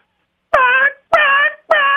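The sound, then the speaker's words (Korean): A voice imitates the squeak of eyeballs being wiped when the closed eyes are moved side to side: three loud, nasal honking squeals, each about half a second, repeated in a steady rhythm with no other sound. “어, 그 눈알, 눈알 닦입니다 한번 여러분 공감해 보세요.”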